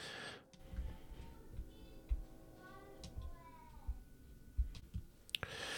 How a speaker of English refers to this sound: You guys probably heard my youngest son singing in the background. He is upstairs. We are in the basement. He is singing so loud that we could hear him all the way down here on the podcast for crying out loud.